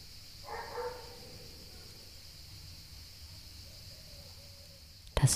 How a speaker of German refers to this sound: Bellen des Hundes, auch das wird Teil deiner Meditation.